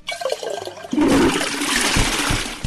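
A toilet flushes with a sudden loud rushing surge of water that continues steadily, following a brief softer clunk and gurgle at the start, with no voices.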